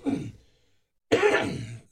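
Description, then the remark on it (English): A raspy throat clearing followed by a short pause, then a harsher, noisier cough-like clearing burst that trails off, with no talking. “I wish we had a cough button.”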